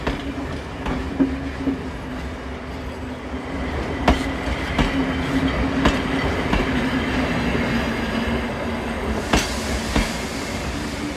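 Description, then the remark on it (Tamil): A train pulled by brand-new steam engines rolls along the rails with a steady rumble, sharp wheel clacks cutting through now and then, and a faint metallic whine riding over the continuous noise. “நீராவி என்ஜின் என்பதனால் சிறிது தூரத்திற்கு ஒருமுறை நீரை நிரப்ப வேண்டியிருந்தது”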